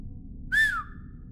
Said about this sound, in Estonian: kõlas vaikne vile ja Wesson tõstis pilgu